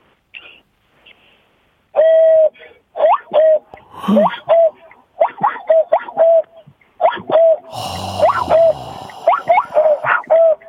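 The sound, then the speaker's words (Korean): Someone whistles an imitation of a cuckoo, a bird call heard in the mountains, repeating the two-note call about a dozen times in a steady rhythm at a clear mid pitch, with a brief burst of noise partway through. “뻐꾸기 예. 소리도 또 있어요.”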